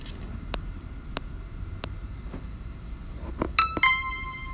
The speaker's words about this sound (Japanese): あ、ピンポンってあり、あったあったあった。